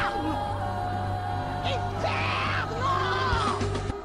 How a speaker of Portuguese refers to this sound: Inclusive, eu vou colocar a mulher gritando, só pra galera ver.